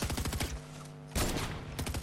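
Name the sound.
video game gunfire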